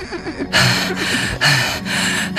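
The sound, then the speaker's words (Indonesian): Heavy, ragged panting from a man, with loud airy breaths in a quick repeating rhythm, each one harsh and strained as if he is badly out of breath. “Kenapa kamu ngos-ngosan gitu?”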